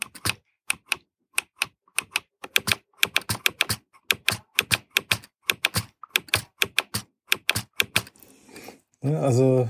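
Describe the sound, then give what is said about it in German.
Braille display modules of a Papenmeier 40-cell braille line clatter as their pins refresh, a rapid, irregular run of sharp mechanical clicks, before a brief voice cuts in at the very end. “Sie ist sehr robust gebaut, ähm, aber die Module sind sehr laut und auch das Knacken der Navigationsleiste.”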